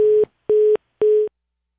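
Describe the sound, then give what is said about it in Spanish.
A phone line's busy tone after a listener calling in hangs up: three steady, loud beeps, each about a quarter second long and evenly spaced by short gaps, with no voices. “Nos colgó el oyente.”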